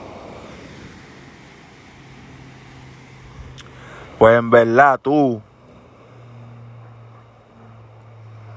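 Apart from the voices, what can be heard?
sea waves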